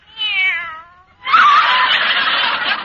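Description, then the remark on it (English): A kitten named Minerva gives one clear, falling meow, then after a brief pause lets out a longer, harsh, raspy yowl that fills the rest of the moment. No one speaks. “oh, there you are, you cute little kitten.”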